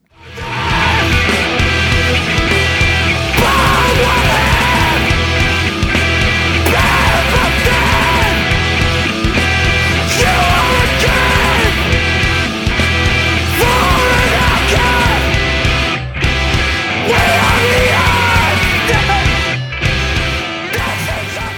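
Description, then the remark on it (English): A loud, dense metal song with screamed vocals and relentless blast-beat drumming, played at full intensity throughout, with a couple of brief pauses near the end. “Taking taking a nice little breath in between those blast beats.”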